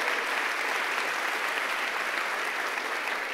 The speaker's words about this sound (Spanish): Si, es al Señor, dale fuerte el aplauso.